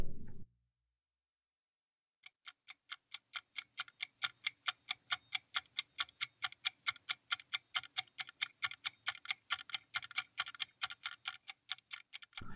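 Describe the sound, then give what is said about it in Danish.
A clock ticks steadily and crisply, a long run of evenly spaced sharp clicks with no one speaking over it. “Det lyder som et ur. Det er det også.”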